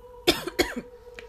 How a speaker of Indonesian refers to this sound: anjir lah batuk ini gara-gara ngomongin konten sebelah jadinya batuk-batuk cuy